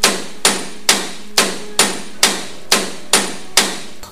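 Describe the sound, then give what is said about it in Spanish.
Loud pounding knocks on a door, growing ever harder, about nine heavy blows in a steady, quick rhythm, each sharp with a brief ringing decay, and no voices. “La puerta seguía sonando, cada vez con más fuerza.”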